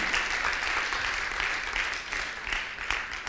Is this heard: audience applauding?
yes